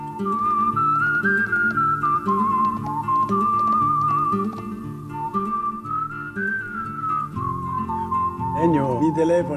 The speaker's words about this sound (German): Er schrieb eine neue Melodie. Sie wurde gepfiffen.